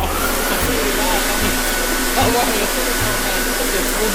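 A hair dryer blows steadily and loudly for the whole stretch, a constant broad rushing whoosh with a faint motor hum underneath and no talking.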